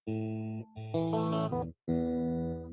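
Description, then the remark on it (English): An effects-laden electric guitar plays a short intro riff of sustained, ringing chords in three phrases with a brief gap between them. It is loud and alone, with no voices. “the intro to cheers is like the what is it the”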